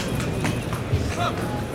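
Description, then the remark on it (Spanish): A horse's hooves clop at a steady walking pace as it enters the cuadrilla yard at a bullring during a mounted bullfight, where the rider is changing horses. The hoofbeats sit under a broad wash of background crowd noise. “Y va a cambiar la cabalgadura. Ahí oímos cómo entra en el patio de cuadrilla.”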